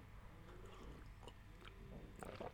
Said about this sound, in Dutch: Ik neem even een slokje thee tussendoor.